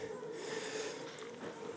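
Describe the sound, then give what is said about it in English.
Chairs squeak and creak as an audience sits down during a church service, a steady mix of shuffling and scraping with thin squeals running underneath, fairly quiet and spread across the room. “Oh, very squeaky chairs.”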